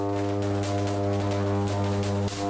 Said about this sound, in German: So ungefähr hört es sich an, wenn ca. 300.000 Volt über eine Stromautobahn zu uns geleitet werden.